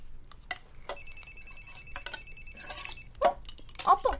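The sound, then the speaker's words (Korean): The father's mobile phone rings with steady, high electronic tones held for a couple of seconds, over faint background noise, followed by short bursts of voices talking. “이거 아빠 휴대폰 소리 아니야?”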